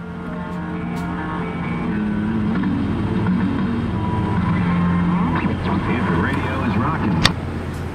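A car drives steadily along a road on a beautiful day, its engine humming in a continuous low drone with even road rumble throughout, with a brief click near the end.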